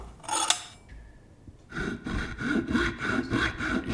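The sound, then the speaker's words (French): A brief scrape, a short quiet pause, then steady back-and-forth sawing through a skull until it is open, about eight rasping strokes in an even rhythm, fairly loud, with no voices. “Besoin d'aide, Auguste Non, j'y suis. Le crâne est ouvert.”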